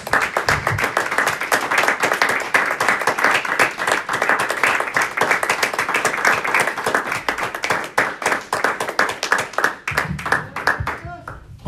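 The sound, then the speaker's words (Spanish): Sustained applause from a church audience, given to the Lord Jesus Christ after a prayer: a dense, steady patter of many hands clapping for about ten seconds before thinning out, with a few voices calling out underneath. “Le damos un aplauso al Señor, a Jesucristo una vez más, hermanos.”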